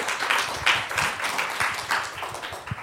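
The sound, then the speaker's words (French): An audience at a talk at the Centre Pompidou applauds two experts, clapping steadily throughout. It is a dense, crackling wash of many hands with no pauses and no voices, holding at a fairly even moderate loudness from start to finish. “Bien, ben, je crois que le moment est venu d'applaudir nos deux experts, de vous remercier”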